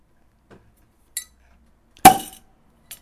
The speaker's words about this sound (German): So, jetzt kriegst du den richtigen Link und ich mache mal eine neue Flasche auf.